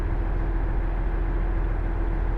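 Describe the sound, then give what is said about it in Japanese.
A steady low rumble of a train's interior noise while running on the IGR Iwate Galaxy Railway and JR Hanawa Line from Morioka to Ōbuke, a through train bound for Ōdate, with a constant hum and no distinct clacks or voices. “耳で楽しむ鉄道旅 ＩＧＲいわて銀河鉄道＆ＪＲ花輪線 盛岡→大更”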